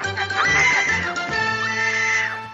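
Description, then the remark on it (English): A woman's shrill scream rings out loud, holding for a couple of seconds with a wavering, strained pitch before trailing off, with no talking around it. “And just as that's about to happen, we hear a scream.”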